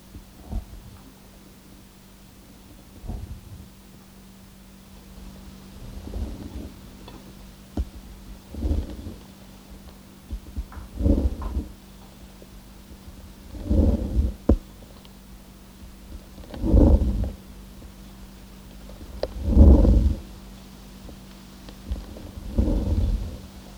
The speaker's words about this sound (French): l'escargot.